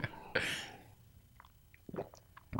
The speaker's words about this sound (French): Fait que là, ben, avant de te poser la prochaine question, je vais prendre une gorgée d'eau.